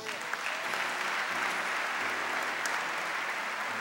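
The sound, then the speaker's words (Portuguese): An audience applauds the Lord steadily, a dense, continuous wash of clapping at an even level throughout, with faint tonal music sustained underneath. “Quem recebe, aplauda o Senhor.”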